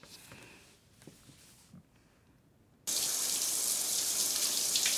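Quiet, with a few faint knocks, then a shower at home suddenly turns on and sends a loud, steady hissing spray of water that continues to the end.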